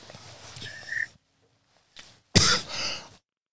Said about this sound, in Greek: Συγγνώμη, με πιάσε λίγος βήχας. Τι να κάνω, συμβαίνουν και αυτά, ζωντανή εκπομπή είναι.